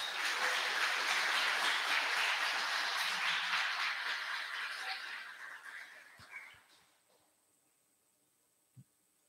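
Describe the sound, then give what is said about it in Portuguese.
An audience applauds Jesus with dense, steady clapping that holds for several seconds, then gradually thins and fades into near silence, with a few scattered claps and a faint tap at the end. “Vamos aplaudir Jesus, irmãos?”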